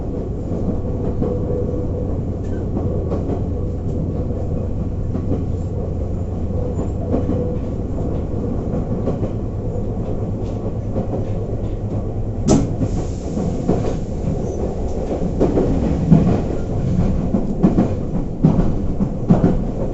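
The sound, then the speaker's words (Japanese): A Nagoya Railroad local train bound for Chiryu, heading for Hiratobashi station, rolls steadily along the rails with a continuous low rumble and recurring clickety-clack from the wheels; no one speaks, and the noise grows a little rougher midway through. “【ガタンゴトンの旅】名古屋鉄道 豊田線 猿投→梅坪→赤池”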